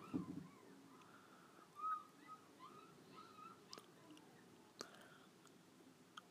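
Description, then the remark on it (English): Seagulls call faintly at the seaside, a scattering of short, wavering cries repeating over a quiet outdoor hush, with occasional soft clicks and rustles. “I'm walking past that seaside now. The gulls quailing in the background.”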